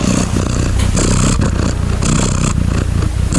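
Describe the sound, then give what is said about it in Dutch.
A cat purrs with a steady, rumbling drone, pulsing in a low rhythm, accompanied by occasional soft rustling or scraping. No one speaks. “Het is een kat. Deze kat is eh, aan het spinnen.”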